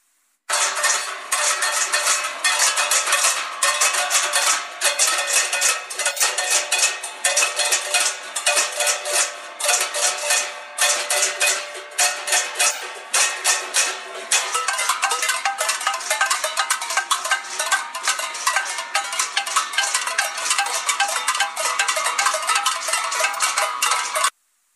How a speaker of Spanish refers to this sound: el llamado es Abrir o Morir y este cacerolazo. Tenemos por ahí incluso un audio para que escuches un poquito cómo se vivió este sonido. Pues la verdad que sí es impactante para todos los que pasaban y para los que podemos escucharlo ahorita.